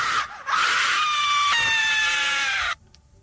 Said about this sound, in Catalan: Tenim altres crits, no? D'altres persones? A veure, podem escoltar-lo?